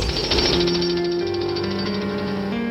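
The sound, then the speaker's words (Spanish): Hard stone being chipped away with rapid, continuous strikes, a dense, steady rattle of impacts with a ringing metallic tone underneath, loud throughout and with no voices. “Estoy picando la piedra dura.”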